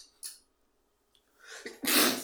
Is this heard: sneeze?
yes